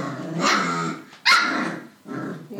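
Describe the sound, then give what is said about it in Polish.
Loud dogs play-fighting and biting each other: rough, continuous snarling growls in three bursts, broken by a sharp bark about halfway through. No one speaks. “No i zobacz, co oni robią. A psie gryzą psy.”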